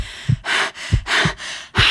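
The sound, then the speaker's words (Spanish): Quick, shallow breaths rush in and out in a tight, panicky rhythm, about a half-dozen breathy gasps in two seconds, speeding up as a sound approaches, with no talking. “Mi respiración, mi respiración acelerarse mientras el sonido se acercaba.”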